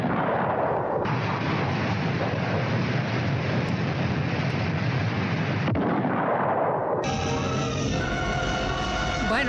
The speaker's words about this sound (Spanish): explosiones como del Correcaminos, ¿no? Y los Looney Tunes.